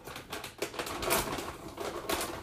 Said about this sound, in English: I'm putting my coffee cream up, so it's making noises.